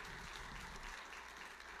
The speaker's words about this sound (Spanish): Ahora eso sí merece un aplauso.